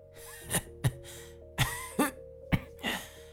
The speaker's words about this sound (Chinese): 咳嗽了几声，还是有些虚弱。